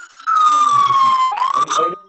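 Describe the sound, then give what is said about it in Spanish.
A loud emergency siren wails with a strong tone that slowly falls, then sweeps back up, over a busy background of street noise. “Escuchamos sirenas por ahí.”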